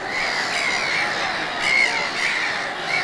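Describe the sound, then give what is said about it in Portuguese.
A flock of seagulls squawking together in a dense, overlapping chorus, steady and fairly loud throughout, with a few sharper calls rising above the rest and no talking. “Não bastasse a cena frustrante, a humilhação foi maior ainda quando ele se deu conta que todas as gaivotas da aldeia estavam à sua volta.”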